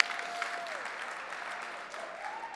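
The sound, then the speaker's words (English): A church audience claps steadily to thank the children's director and the Victory Kids ministry, a dense, even wash of applause that holds at a constant level for the whole stretch, with a faint sustained tone running beneath it. “Can you clap it up?”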